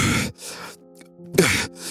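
Heavy, out-of-breath panting up close: four quick, rasping breaths in an uneven rhythm, with a short pause in the middle and a faint voiced edge on some exhales.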